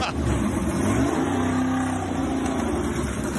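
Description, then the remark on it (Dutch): A deep 6.2-litre V8 car engine of about 430 hp, fitted with a restrictor, rumbles loudly, its pitch climbing briefly as it revs, then settling back into a steady, throaty growl for the rest of the moment. “Een dikke V8, 6,2 liter.”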